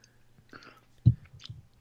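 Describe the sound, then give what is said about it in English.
Quiet gulping of beer: one firm swallow followed by two softer ones in quick succession, with small wet mouth sounds and no talking. “Oh, yeah, I've I've just taken a lovely, great big gulp of that, or a number of great big gulps of it, and as you say, yeah, it's it, it's not overly fizzy it's really well balanced and it just makes it really easy to drink.”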